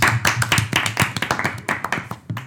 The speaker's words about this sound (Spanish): Bien hecho. Chapo, aplauso. Gracias, gracias.